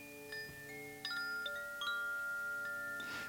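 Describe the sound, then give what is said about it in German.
Carousel band organ music with sustained, layered tones. Bright bell dings ring out on top every second or so, loud, with no voices. “Er hört die Musik des Fahrgeschäftes. Ein Bimmel, ein spielender Orgel, ein sich drehendes Geräusch, ein schönes Klingen der Orgelpfeifen.”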